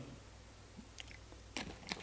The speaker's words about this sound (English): As I take a sip of water here,